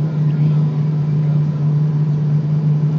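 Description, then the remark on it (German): A steady, continuous airplane engine drone with a strong low hum and a broad rushing noise above it, holding an even loudness throughout, heard aboard a plane during its landing approach to Malé. “Und wir sind im Landeanflug.”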